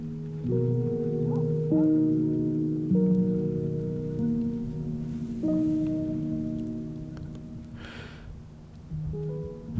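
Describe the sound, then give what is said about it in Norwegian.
Footsteps creak over frozen wooden boards on a balcony in the cold, each step drawing out a long, tonal groan that shifts pitch as the weight moves. The creaks are steady, with no voices. “Og, og jeg kjente da, da, jeg gikk ut på altanen der jeg bor nå, uh, den fantastiske lyden av treverk som knirker i kulda når du, når du går på det.”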